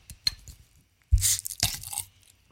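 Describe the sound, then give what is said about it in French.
Rustling and tearing of paper wrapped around a glass bottle of Lindemans Framboise raspberry beer as it is opened, with crinkly bursts, a dull knock and faint glassy clinks; no one speaks. “Allez, j'ouvre.”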